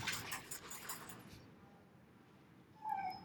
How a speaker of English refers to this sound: if you're wondering what that noise is in the background, that is a dog shaking with its lead on. It's Yoli. She's well cute.